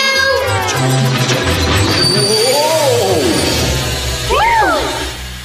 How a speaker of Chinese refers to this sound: 谢谢你的汽笛声，我得退出隧道，这样你们才能过去。